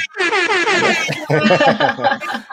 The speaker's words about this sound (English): Air horn, yes.